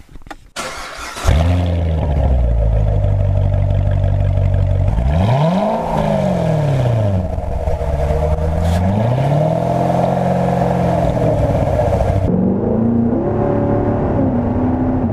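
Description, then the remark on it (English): A sports car engine starts with a sharp burst, then revs and accelerates through rising and falling pitch sweeps as it shifts gears, loud and steady throughout with no talking. “sounds like it's time to put this show into overdrive.”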